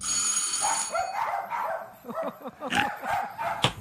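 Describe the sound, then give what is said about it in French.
A classic-model doorbell from Les sonnettes de l'Estrie rings with a bright, buzzing metallic tone for about a second, then several dogs break into a burst of loud, overlapping barks and yips. “On a tous les modèles de sonnettes, que ce soit la classique”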